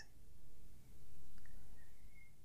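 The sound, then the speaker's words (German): A few faint bird chirps, short and high, come through a steady low background rumble. There is no talking, and the outdoor ambience stays quiet and calm. “Und dann, vielleicht hörst du auch die Vögel zwitschern hier bei mir im Hintergrund.”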